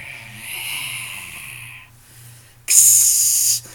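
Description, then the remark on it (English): Voices make imitation vampire noises on the show Vampires Next Door: a long, breathy rasping hiss, a brief pause, then a sharper, louder hiss held for about a second. “They're making vampire noises everywhere.”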